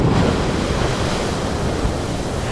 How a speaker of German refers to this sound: Und zu finden ist dieser Geysir direkt im Tal Eukadalür im schönen Island.